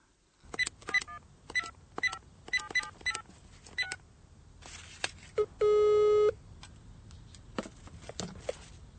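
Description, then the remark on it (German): A phone number for a call to a colleague in the Czech Republic is keyed in as a quick, uneven run of short electronic dialing beeps, followed by a pause and then one longer, buzzy ringing tone, with faint clicks and rustling afterward. “calls a colleague in the Czech Republic.”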